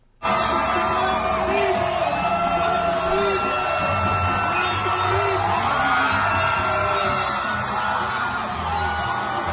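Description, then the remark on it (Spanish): A large crowd cheers at the finish of the 61st San Blas half marathon in Coamo, Puerto Rico, as runner Alexander Torres wins: a loud, steady roar of many overlapping voices, with whoops and shouts rising above the din from start to end. “Esa fue la locura que se vivió en Coamo este fin de semana cuando el fondista orocobeño Alexander Torres hizo historia al ganar la edición número 61 del medio maratón San Blas en Coamo con una marca de 1.0359.”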